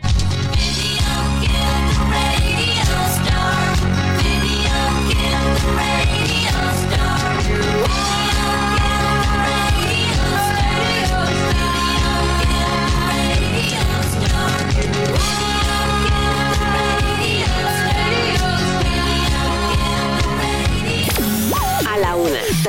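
A pop song plays loud and steady throughout, with a full band mix, a driving beat and sustained melodic lines, with no talking over it.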